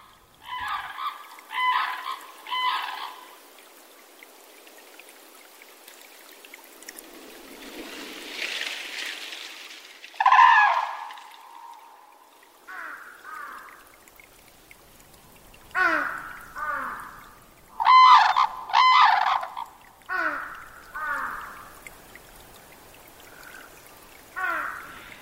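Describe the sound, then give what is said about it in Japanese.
Loud, trumpeting red-crowned crane calls ring out in bursts, often in quick pairs or triplets, over soft wetland ambience at Tokitai wetland in Hokkaido, Japan, with a gentle rushing water sound in the background. “登喜岱湿原（北海道）のタンチョウをお届けします。”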